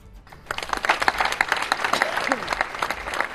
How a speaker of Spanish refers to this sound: Solo los aplausos finales han roto ese silencio caras de tristeza y extrañeza por el intento de asesinato de una madre a sus tres hijos.